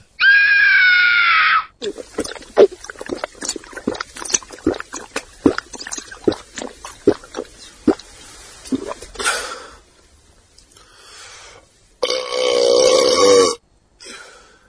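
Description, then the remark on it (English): A loud, drawn-out belch opens, followed by several seconds of rapid wet gulping and slurping as someone drinks bathwater, then another long, raspy burp after a short pause. “Would … drink Velvet Sky's bathwater?”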